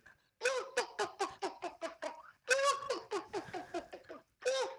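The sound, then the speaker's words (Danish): A human voice imitates a hen, clucking in quick bursts of repeated, fairly high-pitched notes, pausing briefly between runs before starting again. “Så den her høne, og nu forestiller jeg mig, der går på den her høneagtige måde med en bog over hovedet.”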